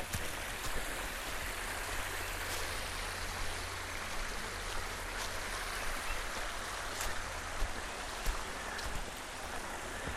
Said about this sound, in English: There's a creek right here. the water.